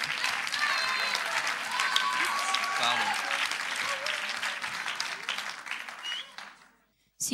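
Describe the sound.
A group audience claps steadily for several seconds, a dense, bright patter of many hands that fades out near the end, with some faint voices mixed in.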